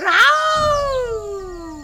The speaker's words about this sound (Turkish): Ne oldu aslana? Ne bu feryadına sebep ne?